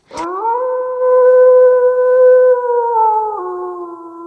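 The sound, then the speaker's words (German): A sustained, tonal howl from a pack of Siberian huskies, starting with a brief burst and then holding a steady, wavering pitch for about four seconds, fairly loud, with no talking. “ich freue mich riesig, dass du mich und das Husky Rudel hier bei einer kleinen Expedition in unsere faszinierende Welt begleitest.”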